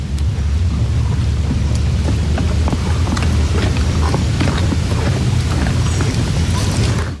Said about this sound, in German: Die Spende wird von den Wildtieren sehr gerne angenommen. Vor allem die Rothirsche begrüßen die nahrhaften Kastanien. Und wenn jetzt ganz genau anhörst, dann hörst du, wie die Hirsche die Kastanien gerade im Ganzen verbeißen.